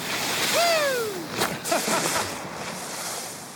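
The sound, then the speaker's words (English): Skiers ski through backcountry snow in a steady, airy hiss with windy rushing, while a high gliding call sweeps downward early on; the whooshing stays even throughout. “This is the sound of skiers in the backcountry”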